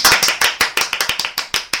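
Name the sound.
applause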